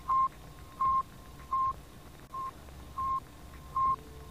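The radio signal transmitted by the Sputnik satellite: a steady series of six short electronic beeps at an even, unhurried pace, each a clean tone with a slight crackle of radio static beneath, no voices present.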